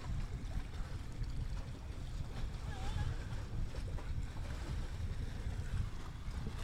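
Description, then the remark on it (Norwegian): Water sloshes and laps steadily against a boat hull on a day with bigger waves than usual, with a dense low rumble of wind and waves filling the scene and a faint voice briefly audible in the background. “Ja, nei, ja, men det er litt mer bølger i dag, da.”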